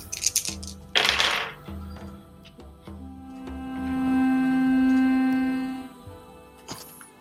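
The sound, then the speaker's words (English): Four dice clatter across a hard surface together, a burst of rattling clicks and knocks that tumble and settle over a few seconds, with no talking. “when you need four of them, I like to roll them all at once, so.”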